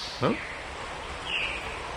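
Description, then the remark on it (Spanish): A brief bird call sounds near the start, followed by a softer, higher chirp a second later, both over a steady hiss of outdoor forest ambience with no talking. “Ese fue un pájaro.”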